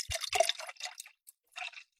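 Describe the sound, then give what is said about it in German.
Alcohol-free sparkling mineral water is poured into a glass in short, fizzy bursts with brief pauses between, fairly quiet, with hissing and crackling bubbles and no voices. “Komm, ich gieße mir jetzt mal hier ein Getränk ein.”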